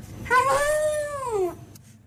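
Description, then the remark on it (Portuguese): A single drawn-out howl from Lorna, a dog, clear, rising then gliding downward over about a second, with a vocal, almost word-like shape, as if she were saying hello. “É isso que eu gostaria de submeter à apreciação do provedor cético de cães falantes, Vasco Palmeirim.”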